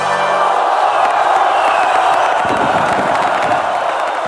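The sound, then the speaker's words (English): A crowd cheering sound effect: a loud crowd cheers and roars continuously, with scattered whoops and shouts rising over a dense wall of voices; no clear speech stands out. “Maybe I'll put some sound effects under that or something.”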